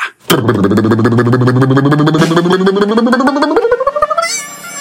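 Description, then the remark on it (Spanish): A voice imitates a snare drum roll with a loud, rapid rolling trill that climbs steadily in pitch for about four seconds, then ends with a short hissing burst like a cymbal. “Dame el redoblante de tremenda vaina.”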